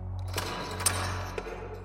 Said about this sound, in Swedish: Jag tog fram min nyckelknippa och provade nyckel efter nyckel utan framgång tills en av dem sa klick